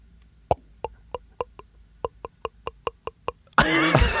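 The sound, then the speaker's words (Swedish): A voice imitates wine being poured: about a dozen hollow, popping glugs in a steady rhythm, clear, then a sudden breathy hiss at the end. “Hon vill höra dig låta som när man häller upp vin.”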